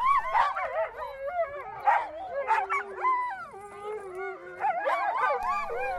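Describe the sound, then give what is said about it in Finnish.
A pack of Greenland husky sled dogs, working dogs rather than pets, howls and barks together, wavering overlapping cries with sharp yips mixed in, loud, continuing steadily throughout. “Grönlannin haski ei siis ole lemmikki, vaan se on työkoira, jolle ei opeteta tavanomaisia koiratemppuja, vaan valjakkotaitoja, kuinka käyttäytyä valjakossa ja kuinka toimia metsästystilanteessa.”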